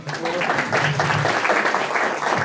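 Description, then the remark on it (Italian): An audience applauds steadily in a dense, continuous wash of clapping, with some voices faintly audible beneath it throughout. “tra tutte le cose che ho fatto adesso sono anche un atleta leggendario, fate un applauso, grazie.”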